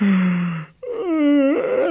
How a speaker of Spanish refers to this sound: de bostezos. De muchos bostezos.